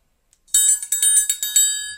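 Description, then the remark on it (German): A triangle is struck in a quick, rhythmic run of about eight bright metallic hits, each ringing into the next, fairly loud, picking out the melody of a pop song with no voices. “ob man … mehr. auch auf einer Triangel spielen kann”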